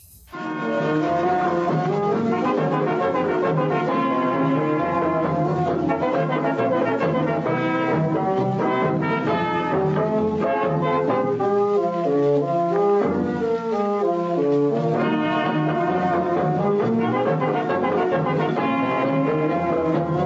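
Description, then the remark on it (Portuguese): An old Brazilian carnival song plays steadily and loudly, a dense, bright ensemble of sustained melodic lines carrying on without pause and with no talking over it. “E a Fernanda nos mandou duas músicas de carnaval, antigas, mas lindas.”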